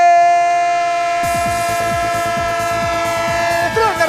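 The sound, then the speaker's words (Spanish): A sustained train horn blares loudly throughout, joined after about a second by the rhythmic clatter of a train rolling over rail joints, steady, with no voices; a sound effect introducing the radio football round-up 'El tren del fútbol' for matchday 33 of La Liga Santander. “El tren del fútbol de esta jornada número 33 de la Liga Santander.”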